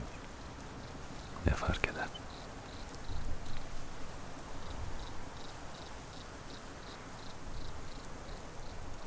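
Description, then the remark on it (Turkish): Steady rain hisses evenly throughout, a soft continuous wash of falling drops, while a voice briefly murmurs a short question near the start. “Yüzyıllardır yağıyor.”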